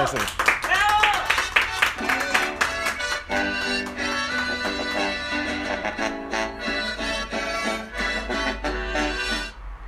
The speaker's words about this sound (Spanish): Adelante. Amigos, fuerte aplauso aquí a todos aquí en el